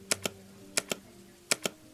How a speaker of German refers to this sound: Das Prinzip ist simpel. Für den Kaffee klicken wir, klicken wir, danke, dreimal auf Kaffee.